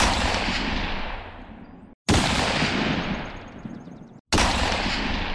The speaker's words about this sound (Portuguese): Foi o que fizemos. Disparamos nossas armas para o alto e instantes depois surgiram na praia cinco canoas cheias de selvagens.